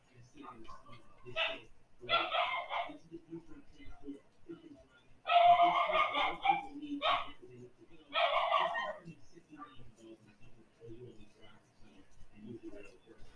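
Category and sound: animal, dogs barking outside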